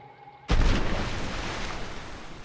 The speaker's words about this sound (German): mit zwei Teilen entzündbarer Luft, die heute Wasserstoff genannt wird und 1766 von Henry Cavendish zuerst nachgewiesen wurde, mit Hilfe eines Funkens in seinem Labor zur Explosion. Achtung!